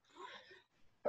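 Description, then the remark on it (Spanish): A single breathy sneeze bursts out, trailing off into quiet before a short, sharp vocal sound cuts in at the very end. “¡Coronavirus! Gracias. Salud.”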